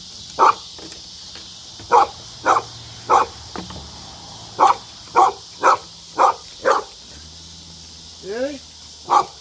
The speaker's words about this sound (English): That's Django. That, call that a junkyard dog.